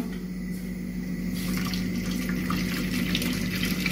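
Already hot water is poured into a heating cooking pot holding a generous amount of olive oil, starting after a brief pause and continuing as a steady splashing gurgle over a constant low hum, with no one speaking.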